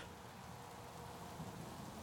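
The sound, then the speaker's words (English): Steady rain patters continuously, a dense, even hiss of drops with no pauses, fairly quiet, with no voices or other sounds. “The rain patters, and the game freezes.”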